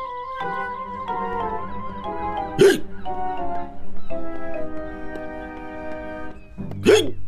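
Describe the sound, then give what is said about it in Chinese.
Two sharp, abrupt hiccups from someone being treated for hiccups, spaced about four seconds apart, each a short sudden gulp standing out over a steady bed of sustained music. “哈哈哈，不是，…正在治疗打嗝。”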